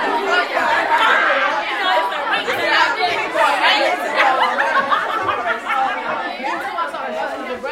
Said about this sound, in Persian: اول بذار بریم از اینجا بیرون این بچه ها خیلی سر صدا میکنن